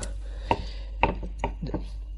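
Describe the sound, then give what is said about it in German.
A knife dices fresh mushrooms on a board, with four or five sharp, unevenly spaced chops standing out over a low steady hum, no voices. “Im Übrigen habe ich jetzt den Topf, solange wie ich jetzt, weil ich das hier noch am Würfeln bin, ausgemacht.”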